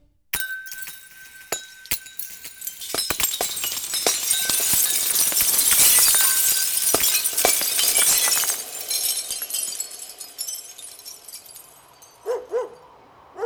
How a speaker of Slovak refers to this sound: Bolo jasné, že krehké sklenené ozdoby toto korčulovanie bez korčul asi neprežili.